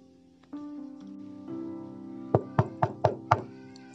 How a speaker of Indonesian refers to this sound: Tiba-tiba ada suara pintu diketuk.